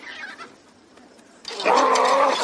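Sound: chickens clucking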